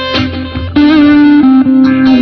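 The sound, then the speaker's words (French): Electric guitar through a ProCo Rat distortion pedal, heavily distorted, plays a few short picked notes, then holds a loud, buzzing sustained note with gritty overdrive tone, alone with no voices. “Tiens là, j'ai une disto, le, la le principe Proco, looper, ouais, ça peut le faire. La Proco Rat Distorsion.”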